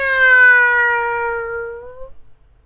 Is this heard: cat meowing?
yes